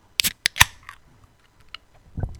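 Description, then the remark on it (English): A can of American pilsner beer being cracked open: a couple of sharp metallic clicks, then a louder pop with a brief fizzing hiss that fades, followed by a soft low thump. “I I don't think I don't think it beats all day IPA, but I really like this one crack it.”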